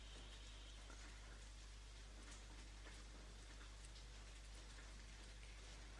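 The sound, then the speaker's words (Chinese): Soft, steady rain falls at night, hissing without a break, with scattered faint drop ticks and a low hum underneath; no voices are heard. “嗯，下雨真的是好抑郁啊！”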